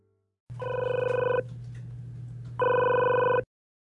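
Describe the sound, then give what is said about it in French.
A telephone rings twice, each ring a loud, steady electronic trill lasting about a second, separated by a short pause over a faint low hum. No one speaks. “Cet appel signalait que deux personnes avaient été poignardées.”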